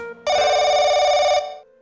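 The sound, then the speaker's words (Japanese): A telephone rings for an incoming call from a junior colleague, loudly and steadily for about a second, a bright buzzing electronic bell with a rapid trill, then cuts off abruptly with a brief fading tone. “お、俺に電話ああ、後輩のあいつからだ。”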